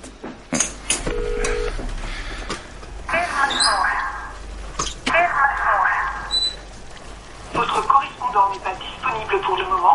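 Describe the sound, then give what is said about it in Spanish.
A woman's mobile phone call to her sister rings with repeated electronic tones in short bursts, clear, while muffled voices and background noise carry on underneath. “Luego coge el móvil y llama a su hermana.”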